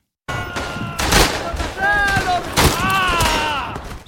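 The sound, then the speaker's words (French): Rifle shots and bursts of machine-gun fire, mostly individual shooting, crack out irregularly, loud and sharp, over a steady din, with voices shouting through it, in a video game's sound design depicting Verdun, 1914-1918. “Ce qu'on entend, c'est beaucoup du tir individuel en fait, fusil, euh, mitrailleuse, ce type de choses qui, qui occupe vraiment l'espace sonore”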